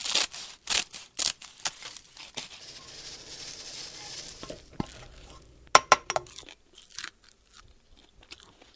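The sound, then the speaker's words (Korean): Crisp sheets of dried laver seaweed being cut, a run of sharp crackly snips and crunches coming in bursts, with a softer rustling stretch in the middle and no talking. “아, 김 자르는 소리.”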